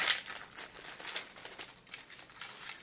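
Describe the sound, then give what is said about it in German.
Crisp crinkling of thin plastic as a small bag holding a device housing is handled and opened, a steady flurry of sharp rustles and crackles lasting a few seconds with no voices. “Auch nochmal in so einer kleinen Tüte drin.”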